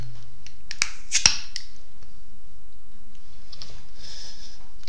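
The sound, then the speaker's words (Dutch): A bottle of winter beer from the local liquor store is opened: a couple of sharp metallic clicks, then a brief hiss of escaping gas, followed by quiet fizzing and small handling noises. “Dus daarom het natje van vandaag een winterbiertje van de lekkere. dus laten we die openmaken.”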